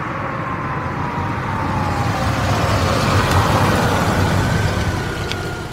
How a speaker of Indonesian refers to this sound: suara mobil terdengar. Akhirnya hari itu pun tiba. Cucu-cucu kakek Roka datang dari kota untuk menemui kakek Roka.